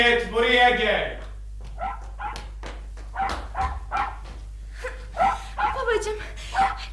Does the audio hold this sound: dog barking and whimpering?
yes